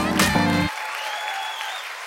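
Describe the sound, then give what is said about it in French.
An audience at Montreux Comédie claps and applauds steadily to welcome comedian Virginie Fortin to the stage, a dense wash of hand claps that holds at an even level for the whole moment, with no one speaking over it. “Préparez-vous maintenant à accueillir notre prochain artiste et faites du bruit, où que vous soyez, pour Virginie Fortin.”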